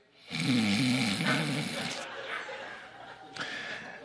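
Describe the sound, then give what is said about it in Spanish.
A man's voice mimics loud snoring, a drawn-out rattling snore followed by a sharper snort, prominent with no other speech around it. “A roncar.”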